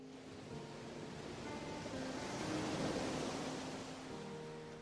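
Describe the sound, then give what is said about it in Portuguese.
A steady, rushing wash of sea waves mixed with wind, swelling gently toward the middle before easing off, continuous with no voices. “Então, a mãe jogou a bebê no mar no mar longínquo.”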